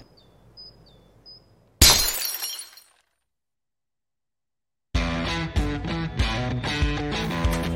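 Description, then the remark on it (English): A glass bottle is cut in half with a single sharp crack that rings out briefly, after a faint quiet start; a pause of silence follows, then music begins. “You're telling me that bottle is cut in half? You could say that.”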